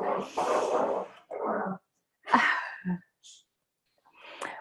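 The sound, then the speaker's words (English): Dogs bark in a quick, uneven string of sharp yelps and huffs, some longer and rougher, with short pauses between them and no talking over them. “Oh my gosh, there go my dogs.”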